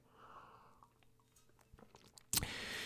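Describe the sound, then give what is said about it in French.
Someone takes a quiet sip of coffee: faint lip and mouth clicks, then a sudden loud, airy slurp or exhale that carries on to the end. “Petite gorgée de café.”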